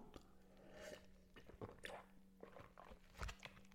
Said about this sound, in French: Excusez-moi pour les bruits de, de, gorgée, mais parler ça. Surtout parler sérieusement, ça sèche la gorge. Excusez-moi, hein, deux secondes.